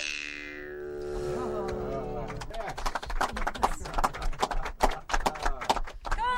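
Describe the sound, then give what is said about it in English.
A horse's drawn-out whinny is followed by a rapid, irregular clatter of many hooves, like a herd of horses moving at speed, among hills of many colors with herd after herd of horses. “We're looking at these beautiful hills of many colors and herd after herd of horses.”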